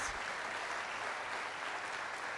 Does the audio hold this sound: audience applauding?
yes